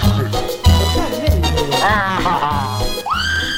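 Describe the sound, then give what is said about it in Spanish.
High-pitched screaming from excited girls and other fans, wavering and rising in long shrill cries over loud, thumping music with a steady beat. “Claro que sí, las chicas, las fanas y fanes gritan.”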